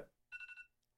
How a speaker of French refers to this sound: Oh, ça, c'est mon alarme.